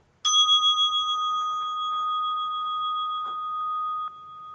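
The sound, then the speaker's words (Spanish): A small bell is struck once, signalling the start of the practice, and rings out with a clear, bright tone, its steady shimmering overtones sustaining for several seconds and slowly fading, with no voices present. “Van a escuchar la campanita, que eso va a ser el inicio de la práctica.”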